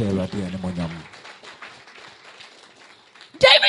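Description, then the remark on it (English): A voice speaks briefly, then an audience claps hands in praise to the Lord during a church service, a soft, scattered patter that swells into a loud burst of clapping at the very end. “Let's clap unto the Lord.”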